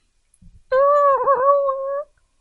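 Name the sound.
dog whimpering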